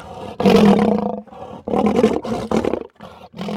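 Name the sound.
loud animal roar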